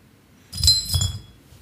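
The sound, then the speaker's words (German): Glass beer bottles clink together as drinks are served, two bright ringing knocks in quick succession over a dull low thud, with no one talking. “Ich habe ein Bier.”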